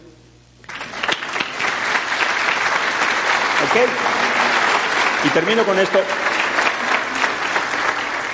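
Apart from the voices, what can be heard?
audience applause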